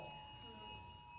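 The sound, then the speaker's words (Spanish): A phone Amber emergency alert for a missing person sounds as a steady, piercing electronic whine, held continuously and fairly faint, with low murmuring voices underneath. “Eso es una alarma, ¿cómo se, una alerta Amber, una emergencia, ¿verdad?”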